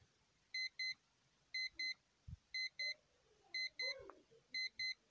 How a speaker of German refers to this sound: Ja, beste, mein Wecker klingelt.